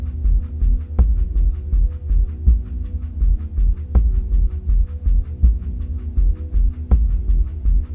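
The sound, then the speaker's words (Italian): A steady shamanic drum pulses in a deep, heartbeat-like rhythm, low booming beats running continuously with a louder accented strike every few seconds, full, with no voices. “al cuore e ai tamburi sciamani.”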